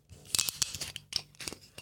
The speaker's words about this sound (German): Schraubverschluss auf, stilecht, ab ins Glas, der Gerät.